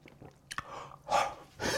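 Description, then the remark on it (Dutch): A voice imitates gulping down a sip of jenever: a couple of quick mouth clicks, then two breathy, wet swallowing bursts, fairly quiet, with no talking. “als ik een, een slok van een jenever nam... Hè, deed ik gewoon altijd zo.”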